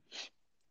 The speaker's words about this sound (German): Gesundheit.